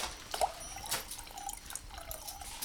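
Water trickles and drips as wine glasses are filled, to be played for their tones in an ensemble performance, with scattered splashes and small tonal plinks over a steady liquid hiss, fairly quiet throughout. No one speaks.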